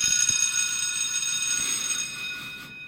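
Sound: school bell ringing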